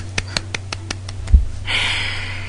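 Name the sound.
hand clapping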